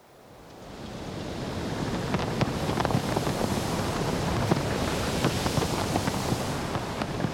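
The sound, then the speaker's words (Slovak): A steady sea breeze gusts across the shore, with broad rushing wind noise and surf washing underneath. It fades in at the start and then holds loud and continuous, with no voices. “Čo viedlo morský Vánok k tomu, aby zvýšil hlas na slnečník?”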